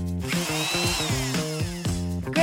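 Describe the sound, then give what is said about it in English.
A power drill whirs steadily, its motor pitch stepping up and down in short bursts as it revs, with no one talking. “I got it! Tool call. Hammer. Hammer. Wrench. Wrench. Drill. Drill”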